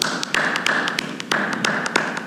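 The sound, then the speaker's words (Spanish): Scattered hand claps ring out in an uneven, fairly quick rhythm over a steady hiss of background noise, like a small group starting to applaud. No one speaks. “Un aplauso.”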